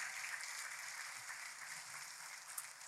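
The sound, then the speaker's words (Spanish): An audience applauds steadily for Jesus during a sermon, many hands clapping in a dense, continuous wash of bright, crackling noise that holds at an even level throughout, with no voices standing out. “Déjenme un aplauso a Jesús, el predicador por excelencia.”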